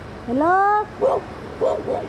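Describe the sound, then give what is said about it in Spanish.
A dog approaching volunteers knocking on doors in Texas lets out a drawn-out rising whine, then barks three times in short, sharp bursts, fairly loud. “Cuidado que se acerca el perro.”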